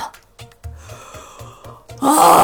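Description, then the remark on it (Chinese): A loud, breathy voiced yawn suddenly swells up near the end, following a stretch of soft, evenly spaced low thumps. It sounds like a person acting out a yawn for the story character Tortuga, who yawns and then lowers his head onto a barrel. “他打了个哈欠，然后低下头靠在桶上。”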